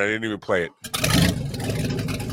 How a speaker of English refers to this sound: I had sound effects for the Hummer.